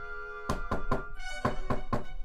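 Someone knocks on the door of a house in two sets of three firm, evenly spaced raps, with a brief pause between the sets, over a soft, steady musical tone.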